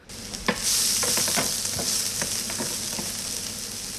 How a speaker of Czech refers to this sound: Krutí maso samozřejmě trošičku naklepeme, trošku osolíme, přidáme grilovací koření nebo po případě stejkové koření a můžeme dávat na pánvičku na rozpálený olej teda samozřejmě.